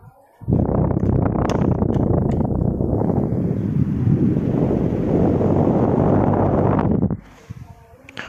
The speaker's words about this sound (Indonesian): white noise banget gak loh suara kipas tuh menurut gue white noise sih